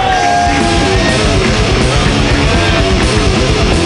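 A comedy show audience claps and cheers loudly and continuously for about four seconds for the first comedian, a dense wash of applause with scattered yells and a brief high whistle near the start.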